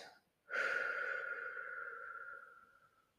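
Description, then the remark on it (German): A long, deep exhale during a guided meditation starts after a brief pause, fairly loud, then slowly tapers off over about two and a half seconds with a faint sighing tone. “und atmest alle Sorgen, alles Schwere in dir aus.”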